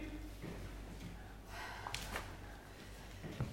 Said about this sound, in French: Notre respiration devient difficile. Nous sommes écrasés sur nos couchettes par une force irrésistible.